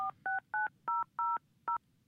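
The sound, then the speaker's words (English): A phone number being dialed: six crisp touch-tone beeps in quick, slightly uneven succession, each a short two-note electronic tone, clear with only faint background hiss. “Sounds like he's calling.”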